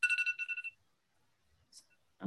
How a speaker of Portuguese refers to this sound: tudo tá tocando agora, alarme